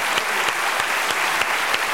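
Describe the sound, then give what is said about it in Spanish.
A crowd applauds steadily, a dense wash of many hands clapping at an even loudness, with a few sharper claps standing out at irregular moments. The applause is given to the Lord to close a religious service. “Terminemos dándole un aplauso al Señor.”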